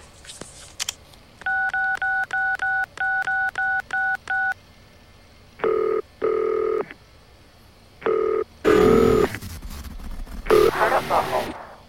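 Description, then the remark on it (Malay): A string of about ten short, even dual-tone beeps as a phone number is keyed in to call someone again, followed by a few longer ringing tones and a burst of voice-like recorded audio as the call does not get through. “Oh, mungkin saya boleh cuba sekali lagi sekarang.”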